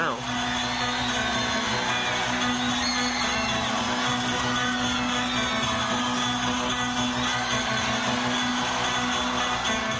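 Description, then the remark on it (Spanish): A steady, sustained tone from a keyboard that was in a singer's house on an island hums low in the background of a loud, dense rock mix, holding one pitch throughout while the fuller layers of the song churn on top. “ese sonido que escucháis de fondo es un teclado que estaba en la casa de …”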